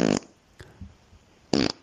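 Two short, loud, raspy farts separated by about a second and a half of near silence, with a faint puff between them; no one speaks.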